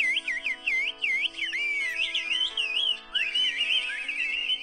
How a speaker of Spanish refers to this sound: No son pájaros. Esa es la gente. Es la gente. Y cada uno tiene sus silbidos. Señoras, viejitos. Ahí va. A ver si pones este video, Luis. De la gente que. ah, esa señora. chifla chido, ¿eh?